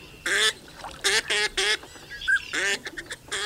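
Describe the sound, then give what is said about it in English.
A flock of waterfowl, including snow geese stopping over in spring along the Central Flyway, calls in a rapid series of loud, harsh honks and quacks, several overlapping bursts with fainter cries between them, and no one speaking. “In recent years, the number of snow geese stopping in the region during spring has risen dramatically to more than 3 million birds.”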